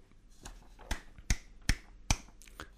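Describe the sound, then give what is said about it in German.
A handful of sharp hand claps in applause, about six, in a slow, fairly even rhythm, the middle ones loudest, with no voices. “Hermann klatscht Beifall.”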